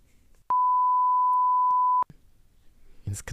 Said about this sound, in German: Das musst du alles piepen, das weißt du, ne?